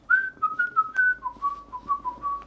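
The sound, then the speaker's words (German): A person whistles a short, wavering tune, the pure notes stepping between pitches in a steady, lilting rhythm, with faint background noise underneath and no talking. “Äh, nein, ich pfeife immer.”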